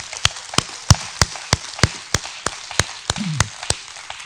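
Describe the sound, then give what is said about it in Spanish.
A group claps together in a steady, even rhythm to honor a 95-year-old sister, about a dozen sharp claps in quick succession over a soft, hissy background. “So, ¿Por qué no acompañamos a los ángeles y darle un aplauso a los 95 años de esta hermosa hermana?”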